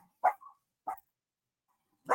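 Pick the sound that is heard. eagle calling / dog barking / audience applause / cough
dog barking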